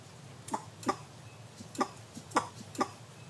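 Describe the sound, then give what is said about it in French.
A sifaka lemur gives a series of five short, explosive sneeze-like alarm calls, sharp, spaced irregularly over a quiet, faintly rustling forest background. “Là, on entend le, cri d'alerte du propithèque. C'est une espèce d'éternuement, un, petit, un cri un peu explosif.”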